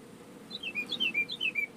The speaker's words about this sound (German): Da ich muss mal kurz, wo der, wo der Vogel hier gerade rein zwitschert. Ich hoffe, das ist nicht zu laut. Ich muss die Tür hier offen haben. Erzähl natürlich gleich noch, wo ich genau bin, aber es ist sehr stickig gerade im Van.